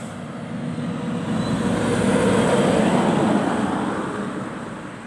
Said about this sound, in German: Jetzt kommt hier zum Beispiel so ein fetter Truck.